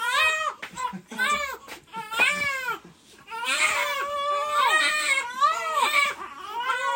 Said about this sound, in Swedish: Det är en orkester som skriker. Alltså det är inte ett barn utan det är, det är verkligen... tre barn.